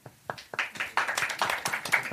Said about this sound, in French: Ah oui, donc vous avez entendu, personnes. Vous avez entendu peu de choses. C'est pas parce qu'on a un problème de micro, c'est parce qu'il y a peu de gens qui ont applaudi.